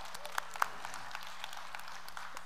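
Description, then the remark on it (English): A church audience applauds a church member coming forward to the stage, a steady wash of many hands clapping together at moderate volume, with a couple of sharper individual claps standing out early on. “So if she wants to come on up to the stage, uh, yeah, give Ashley a round of applause”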